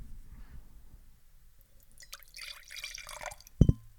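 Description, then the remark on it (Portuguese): The last of the wine pours into a glass in a short, splashy gurgling stream of about a second after a quiet lead-in, followed by two quick, loud knocks like the glass or bottle being set down. “O vinho acabou, deixa só servir. Vou pôr o microfone para as pessoas perceberem que está a acontecer.”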